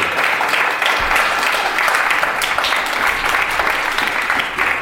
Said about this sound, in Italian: E rieccoci in studio, applauso per signori.